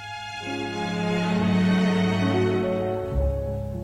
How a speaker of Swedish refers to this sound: Jo, det mesta faktiskt inte bara är det bokstavligen samma julmusik som används i flertalet av dem, mm. alltså mm. literally. eh, och, eh, det låter så här.